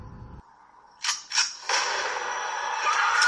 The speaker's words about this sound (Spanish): eso primero que habéis escuchado es un disparo y era Jamie Curtis con una, con una escopeta